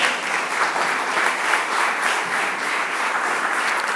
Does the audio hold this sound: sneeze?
no